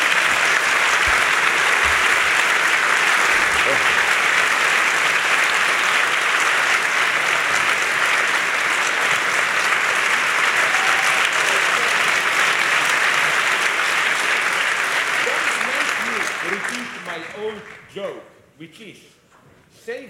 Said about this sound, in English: the applause when we communists will take over. you will have to applaud like to Stalin. Save your energy for then.